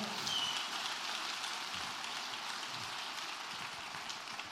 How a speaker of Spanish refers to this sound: Ahora darle el mejor aplauso que le hayas dado al Señor en mucho tiempo.